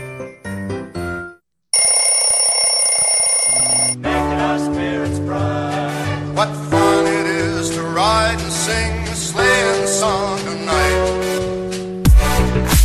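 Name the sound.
alarm clock ringing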